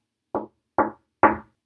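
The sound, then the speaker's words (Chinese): Three knocks on the wooden door of a small wooden cottage in a forest as night falls, Snow White knocking: evenly spaced, each a hollow, woody thud with a short ring-off, the last slightly louder, with nothing else in the background. “突然，眼前出现了一座小木屋，白雪公主急忙敲敲门。”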